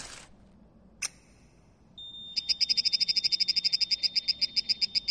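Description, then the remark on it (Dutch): A plant's stress reaction, made audible, after a small cut is made in its leaf: after a brief hiss and a sharp click, a steady high tone begins, then rapid, evenly spaced chirping pulses repeat quickly and loudly, like a croaking frog. “Wat u hoort is de reactie op stress van de plant.”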